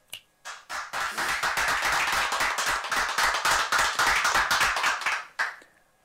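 A small group claps: a few scattered claps at first, then a steady burst of applause lasting several seconds before tapering off to a couple of final claps.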